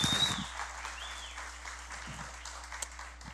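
A short burst of audience applause in a church, a steady wash of many hands clapping together, sounding fairly soft for a few seconds.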